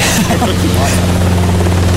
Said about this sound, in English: We've just walked out into the hangar. You can hear a Robinson helicopter, I think it is, taking off in the in the background.